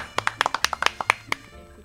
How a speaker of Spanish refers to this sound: y voy a pedir un aplauso bien fuerte.